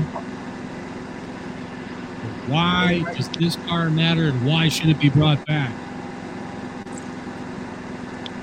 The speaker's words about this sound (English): Yes. generators in the background. Oh my God! Did you steal Schultz's generator?